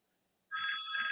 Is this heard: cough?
no